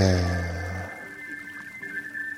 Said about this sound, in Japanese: あのー、こういう川の音とかね、雨とか、夜の公園とか、いい音しますよね。